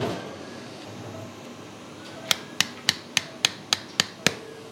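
Eight sharp, evenly spaced hammer taps ring out as a surgeon hammers an anchor into a drilled hole in bone to fix a tendon and muscle to the bone, after about two seconds of quiet background hum; each strike is crisp and brief.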